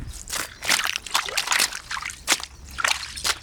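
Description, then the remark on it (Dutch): Steady, rhythmic splashing and sloshing as feet tramp through huge puddles on wet, partly frozen grass after days of rain, puddles left where a tractor drove, each step a wet slap of water, with no voices. “Nou, dit is dus gewoon op het gras. Enorme plassen.”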